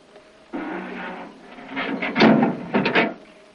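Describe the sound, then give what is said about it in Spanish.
A gate is pushed open: a steady scraping slide, then a few louder grinding, creaking bursts as it swings, with no voices. “Tormentos va a abrir la verja mientras mira a Pedrín con preocupación”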